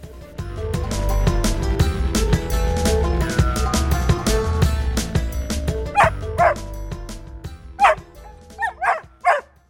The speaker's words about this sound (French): Le lendemain, réveillé aux aurores par les joyeux jappements d'un chien qui se frotte à votre moustiquaire